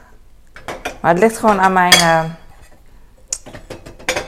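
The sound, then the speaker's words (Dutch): Water drips off dishes in a freshly run dishwasher that is not yet fully dry, a scatter of short, sharp ticks and clinks at irregular intervals, with a stretch of speech in the middle. “Je hoort het water gewoon vallen.”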